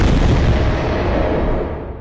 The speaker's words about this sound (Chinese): 炽烈的火焰回卷，时间回溯到爆炸发生的那一刻。